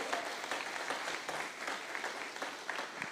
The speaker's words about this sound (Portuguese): Aleluia! Aleluia! Aplauda o Senhor.